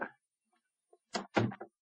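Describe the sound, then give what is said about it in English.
A stage door opens with a quick series of wooden clunks and rattles, following a faint bump and a moment of near silence. “Here's the stage door, sir.”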